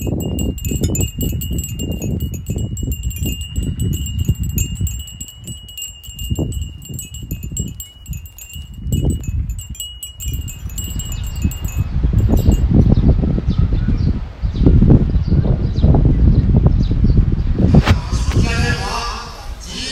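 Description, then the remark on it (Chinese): Wind recorded outdoors at Aranya gusts and rumbles in uneven, low buffeting surges that swell louder in the second half, with faint steady high-pitched tones early on and no clear speech. “以及这些朋友在阿那亚采集回来的声音，比如阿那亚的风声。”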